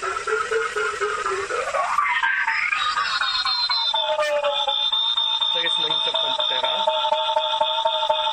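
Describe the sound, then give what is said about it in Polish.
An electronic echolocation device's tone, set to a 5-metre range and played through a loudspeaker, reflecting off carpet: a loud, continuous buzzy drone that glides upward at first, then settles into steady layered pitches with slight wavering. “Ten dźwięk w tej chwili to jest wykładzina.”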